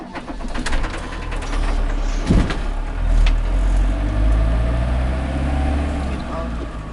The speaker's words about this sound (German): Okay, da hören wir schon, wie dein Wohnmobil losröhrt.